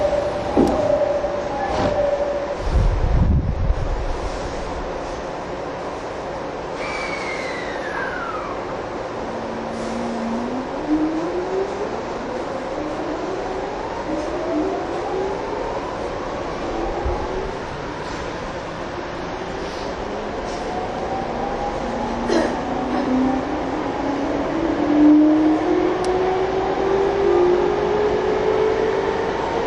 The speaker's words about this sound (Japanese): 1番線から電車が発車します。ドアが閉まります。ご注意ください。